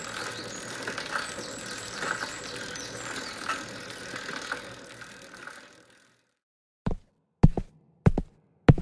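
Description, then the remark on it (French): A steady mechanical rattling drone cuts out into silence, then four sharp clunks and clicks follow, like a door latch and handle being worked as the door of a library at a wine estate is opened. “En ouvrant la porte de la bibliothèque”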